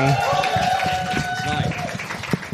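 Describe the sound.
An audience claps in a steady patter of applause lasting a couple of seconds, with a few voices whooping or calling out over the clapping, applauding the host and organiser at a comedy event.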